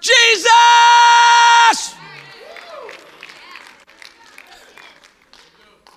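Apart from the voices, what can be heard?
loud shout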